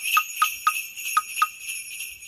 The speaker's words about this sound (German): Ja, Sie hören, wir haben es uns pünktlich weihnachtlich gemacht. Die Glocken klingen nun auch in unserem Intro, das nun an ein verunglücktes Zwölfton-Musikstück erinnert.